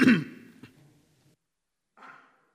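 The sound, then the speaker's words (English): A person clears their throat twice while reading a Bible passage aloud: first a rough, loud rasp that fades over about a second, then after a pause a shorter, softer one. No one speaks. “Turn, the, turn it on mute before you cough.”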